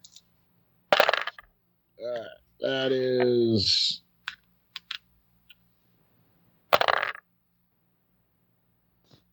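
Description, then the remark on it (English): Dice clatter across a hard tabletop in two short bursts several seconds apart during a tabletop role-playing game, rolled for shooting an arrow with a penalty die, with a brief spoken phrase and a few light clicks in between. “I don't know what level sacrifices I made with these dice tonight, but I gotta keep them up.”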